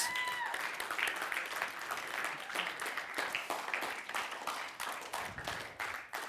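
Sustained audience applause, a dense crackle of many hands clapping at a steady loudness for several seconds, with a few faint voices mixed in.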